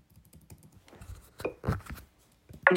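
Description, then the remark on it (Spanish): Keyboard keys being pressed for the VoiceOver, Shift, Down Arrow shortcut: a quick run of soft, uneven clicks that grows into a few louder, sharper key strikes near the end, with no voices. “Entonces, aquí tenemos que pulsar VoiceOver, Shift, flecha abajo.”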